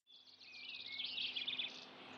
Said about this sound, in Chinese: 一只小鸟啾啾的鸣唱了起来。